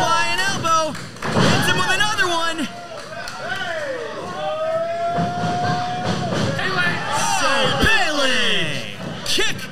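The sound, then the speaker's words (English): A heavy thud of a wrestler slammed to the mat by a suplex in a wrestling ring, with a second impact near the end, over a loud, roaring crowd and excited voices throughout. “Going here, boom, suplexes the train.”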